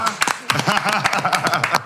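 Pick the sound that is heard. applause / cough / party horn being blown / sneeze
applause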